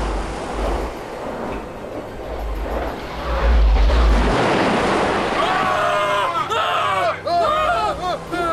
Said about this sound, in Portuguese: Olha, o mar tá ficando agitado. Será que tá vindo tempestade?